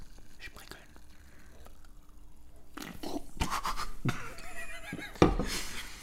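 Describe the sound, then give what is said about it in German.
Hissy fizzing from a freshly opened beer can, with crackling bursts of carbonation and a sharp metallic click near the end; no clear speech over it. “So, Bier. ich mach das mal auf und lebe mal das Ganze hier.”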